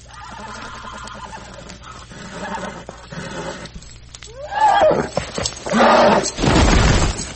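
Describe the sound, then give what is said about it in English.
A horse whinnies loudly in strained, distressed bursts as it struggles, dying, and goes down, its wavering cries rising and falling over a few seconds, followed by harsh, noisy thrashing sounds. “That horse is dying hard.”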